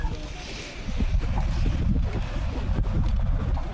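Strong wind buffets the microphone outdoors by a harbour, a loud, steady low rumble that swells slightly after the first second and keeps gusting throughout.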